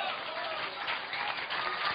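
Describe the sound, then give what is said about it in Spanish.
A crowd of people clapping together in sustained, dense applause that fills the whole moment, steady and fairly loud with no pauses, an audience applauding God during a church service. “Yo no sé si usted puede aplaudir a Dios en esta hora.”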